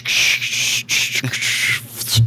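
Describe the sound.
Crisp rustling and crinkling of a little folded piece of paper, pulled from a suit jacket pocket, being handled and unfolded, in a few continuous scratchy bursts with brief pauses, loud with no voices.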